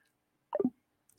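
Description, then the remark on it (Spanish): Kitchen background noise over a phone line: one quick, wet plopping sound that slides downward in pitch, fairly quiet, then near silence with a faint tick at the end. No one speaks. “Se oye como que están en una cocina, pero no sé, no sé, este”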